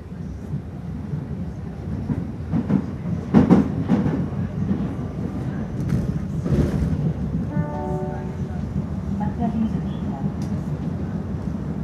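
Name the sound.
subway train riding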